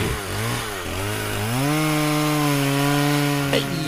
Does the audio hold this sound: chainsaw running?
yes